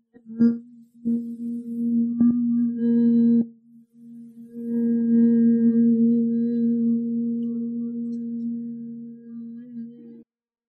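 A person hums steadily at a low pitch as part of a breathing exercise, fairly loud: one hum of about three seconds with a few brief breaks, a short pause, then a longer unbroken hum.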